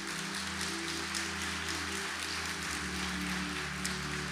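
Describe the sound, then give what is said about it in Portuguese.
An audience applauds for Jesus in a dense, steady wash of clapping that holds evenly for several seconds, with low sustained keyboard tones humming beneath it. “Você pode dar um forte aplauso a Jesus mais uma vez?”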